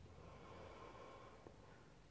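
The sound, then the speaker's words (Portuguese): A single long, deep inhalation drawn in through the nose, steady, with a faint airy rush and no talking. “E agora faço uma respiração muito profunda”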